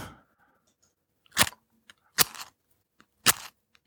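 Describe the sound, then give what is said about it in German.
Three quick, raspy scrapes of matches being struck against a box to light a fire, spaced unevenly with short pauses between them, the last one sharp and hissing. No one speaks during the strikes. “Pass mal auf, meine Streichhölzer hier.”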